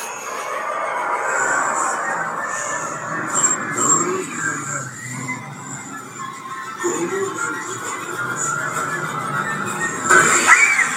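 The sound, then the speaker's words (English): A large animatronic owl screams continuously, a harsh, shrill squealing that wavers in pitch and stays loud for the whole stretch, with a rough, raspy edge and no clear pauses. “Now the owl. get big ass fucking animatronic. Screaming, just screaming.”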